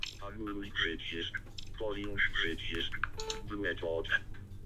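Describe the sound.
Keys tapping on a Bluetooth computer keyboard, just paired with a computer and a phone, in short irregular bursts, mixed in beneath people talking steadily over them.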